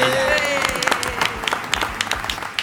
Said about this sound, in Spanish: Fuerte aplauso para